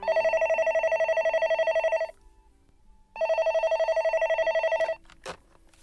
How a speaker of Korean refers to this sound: 네, 전화 왔습니다.